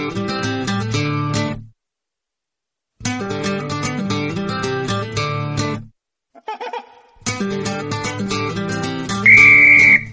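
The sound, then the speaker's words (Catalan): A football referee's whistle gives one loud, sustained blast near the end, sounding over upbeat music that plays in bursts separated by brief silences. “l'àrbitre del Dursal 7, avui l'Adrià Santa Susagna ha agafat el xiulet i ensenyarà targeta”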